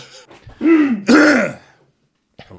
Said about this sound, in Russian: Надо вот, периодически это... дверь открывать и говорить, что, блядь, мы просто кашляем, мы старые и плохо дышим.